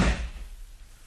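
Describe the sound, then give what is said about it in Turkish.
A door shuts with a single heavy thud, followed by a short fading rumble and quiet room tone. “Çık ve kapa kapıyı.”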